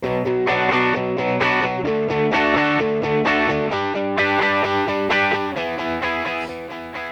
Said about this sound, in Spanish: venga, venga, pues vamos a meter cabecera.